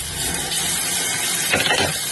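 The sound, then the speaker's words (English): Steady rushing of water from a running tap, as if someone is washing dishes, with a brief louder surge of splashing near the end. No voices are heard. “Somebody washing dishes.”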